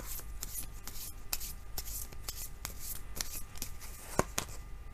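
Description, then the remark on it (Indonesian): Tarot cards are shuffled and handled in a steady run of soft papery flicks and slides, with repeated brief crisp snaps and one sharper tap near the end. No one speaks. “Kita bacakan sekarang kartu tarotnya.”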